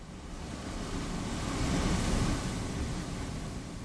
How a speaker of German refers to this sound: Wind und Wellen nagen an den Sylter Dünen.